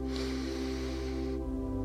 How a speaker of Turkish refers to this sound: İlk nefes bedenimizi rahatlatmak için kocaman büyük bir nefes alıyoruz.